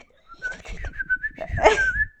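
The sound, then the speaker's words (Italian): A person imitates bird chirping with a warbling whistle that flutters and rises over about two seconds, with some breathy vocal noise underneath. “Dall'alto venivano risatine e cinguettii Fai E fai dei cinguettio?”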